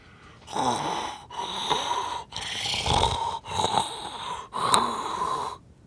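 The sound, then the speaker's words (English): Heavy, wheezy breaths blown right into a microphone held to the mouth during a call, five long rasping inhales and exhales in a steady cycle, loud, close and distorted, with no talking. “It occurs when someone is holding the microphone to their mouth and breathing nonstop into the microphone on a call.”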